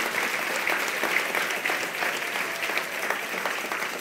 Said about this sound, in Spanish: ¿Alguien puede decir gloria a Dios? Denle el aplauso bien al Señor si se lo va a dar.